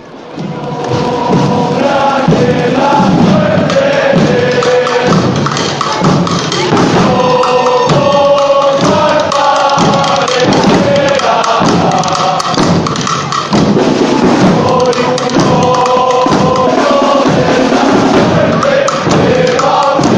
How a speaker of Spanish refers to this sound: Cristo de la Buena Muerte accediendo a la plaza de los Jardinillos, mientras que el cuerpo de la Legión pues interpreta sus cantos y hace sus maniobras para deleite del público que se congrega aquí en la parte final de Doctor Eduardo Arroyo.